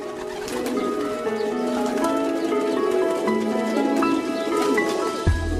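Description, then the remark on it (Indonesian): Pigeons coo continuously in soft, throaty, overlapping calls, steady throughout, with no one speaking and a brief low thump near the end. “Coba perhatikan ketika sang jantan bertalu-talu memberikan pujian, sementara sang betina tertunduk malu.”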